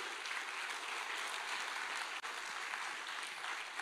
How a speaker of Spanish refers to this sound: Dale palmas fuerte al Rey de la Gloria.